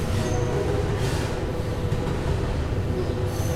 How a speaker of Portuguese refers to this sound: Estou enrolando enquanto o trem não, não passa.